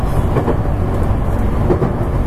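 A JR West 223 series rapid train on the JR Kobe Line, running from Kobe to Osaka, Japan, rumbles along steadily, a loud, continuous low roar of wheels and motor with faint rhythmic rail noise and no voices.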